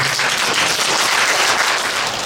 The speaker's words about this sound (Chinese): 要拍拍手啊！我叫你们拍手，你不要拍手，拍手是给你福报，无量庄严福德。